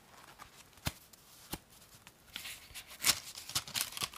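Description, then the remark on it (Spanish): Crisp handmade paper, made in Higashi, Japan, crackles and rustles as sheets are handled, with a few sharp snaps early on and denser, brighter crinkling toward the end. No voices. “Este papel que, ustedes ven aquí en este, y que escuchan aquí en este especie de”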